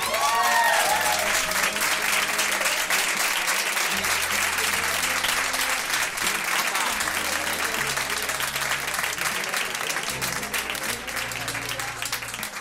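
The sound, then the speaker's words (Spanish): A large audience claps steadily and loudly throughout to welcome two guests, a dense continuous wash of applause with a few faint cheers or voices mixed in, sustained for the whole stretch. “Vamos a recibir con un fuerte aplauso a Javi Nieves y Mara Mate.”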